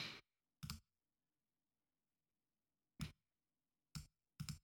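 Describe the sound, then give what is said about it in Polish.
Crisp computer mouse clicks: a few sharp, isolated clicks spaced irregularly, with a quick double click near the end and no talking, made while adding a file and clicking to check it on a file verification website. “Dodajemy ten plik, klikamy we sprawdź, czy tam nie wiem, no sprawdź, klikamy tam jakieś coś takiego.”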